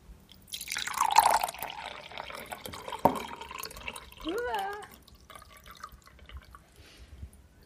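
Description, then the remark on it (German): Homemade all-purpose cleaning liquid is poured into an old glass-cleaner spray bottle: a steady splashing stream for about two seconds, a sharp click, then a few short gurgles rising in pitch as the bottle fills. “Dann könnt ihr das in eine Sprühflasche umfüllen oder abfüllen.”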